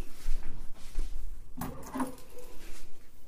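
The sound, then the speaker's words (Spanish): Keys being picked up: soft rustling and handling noises, with one sharp clinking burst midway and quieter scraping after, without talking. “escuchen, déjenme ver nada más dónde están las llaves, acá están.”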